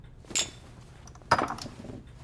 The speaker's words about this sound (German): Schramm erhebt sein Wodka-Glas. Die Zwillinge stoßen mit ihm an.